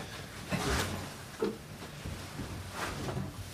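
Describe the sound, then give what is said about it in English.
A dog, Dexter, scratches at carpet, trying to scratch through it, in a few short, rough bursts of scraping, irregularly spaced, with quieter rustling in between and no talking. “And I assume we'll have reacted in the same way that that's Dexter trying to scratch through the carpet that you can hear.”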